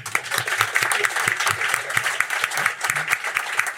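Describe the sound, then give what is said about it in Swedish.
Sustained applause from an audience, given as a big thank-you to two people for what they did for the team, many hands clapping in a dense, steady patter at an even loudness throughout, with no voices rising above it. “Så en eh, stor applåd och ett stort tack.”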